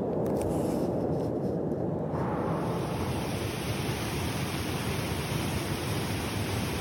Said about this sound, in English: And I find myself in a beautiful waterfall in November.